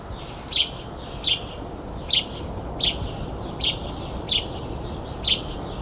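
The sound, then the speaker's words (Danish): A house sparrow chirps seven times in a steady, evenly spaced series of short, bright notes over a constant low rumble of background noise with no talking. “Lad os få en gråsbog.”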